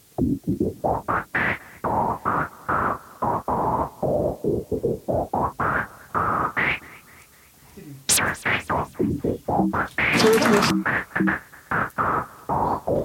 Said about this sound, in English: This is the Seinfeld theme in white noise.